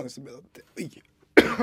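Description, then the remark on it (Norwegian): A man talks briefly, then after a short pause lets out a single loud, harsh cough as something gets stuck in his throat. “Beklager den, satt i halsen der.”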